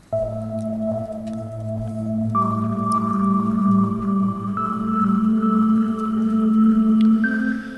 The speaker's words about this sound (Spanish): Venga, Fun, prepárate mientras pongo una musiquita del espacio. A tope.